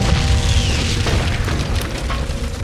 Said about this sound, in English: The door to my tower was suddenly blown away. As it was designed by a powerful mage to be resistant to attack, I could think of only one being powerful enough to destroy it.